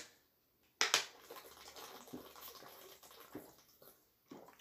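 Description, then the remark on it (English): Water is poured for drinking, starting with a sharp clunk and then a steady splashing rush that tapers off, followed by a few soft handling noises. No one speaks. “One second, I need some water.”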